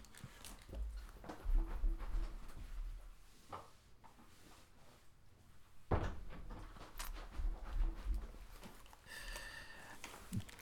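A door is handled and shut nearby, with a few wooden bumps and creaks building to a firm closing thud, followed by light rattling and rustling afterward.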